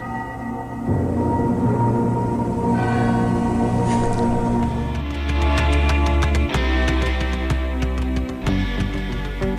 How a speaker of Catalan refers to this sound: el que se sentia de fons eren les campanes de Sant Eulari, l'església, imponent també, no? i que està just allà apropat.